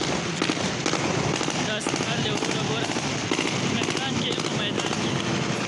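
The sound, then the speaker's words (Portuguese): Rapid bursts of celebratory gunfire crackle almost nonstop in Afghanistan, marking the departure of the Americans and the takeover of the airport; sharp overlapping pops layered over a loud, dense outdoor din with voices faintly audible beneath. “Outros integrantes celebraram a partida dos americanos e a tomada do aeroporto com rajadas de tiros.”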